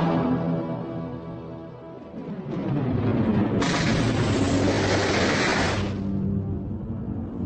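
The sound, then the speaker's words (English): A shuttle's ion cannon, fired by Nyriss at an unidentified vessel: a low rumbling build-up swells into a loud, sustained crackling energy blast for a couple of seconds, then drops back to a deep fading rumble. “Reaching out a finger, she activated the shuttle's ion cannon, locked onto the unidentified vessel, and fired.”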